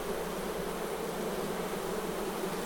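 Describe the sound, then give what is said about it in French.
A steady, dense drone of many honeybees buzzing together in a queenless hive colony, continuous, with no pauses and no voices. “C'est quand les abeilles n'ont pas de reine”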